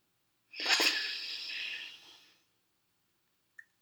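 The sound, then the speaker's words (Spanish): A single deep, airy breath, drawn in and let out over about two seconds, taken while sitting in a comfortable spot to relax, then quiet with one faint click. “Ahora, en un sitio cómodo, nos sentamos y tomamos una respiración profunda.”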